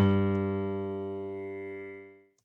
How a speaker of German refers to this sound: Klingt auch fast wie ein Klavier und weniger wie ein Streichinstrument. Aber natürlich kann man auch beim Kontrabass streichen. Mit Zupfen stimmt sich's halt einfacher.